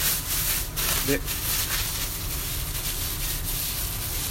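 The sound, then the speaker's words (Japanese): Dough with milk added being kneaded by hand inside a plastic bag: a steady, scratchy rustle and squish of crinkling plastic that continues without pause, with a brief spoken word near the start. “ゴシゴシとゴシゴシ、寝かせてやって”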